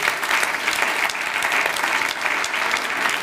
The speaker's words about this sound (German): Komm, lass uns Gott mal einen kräftigen Applaus geben.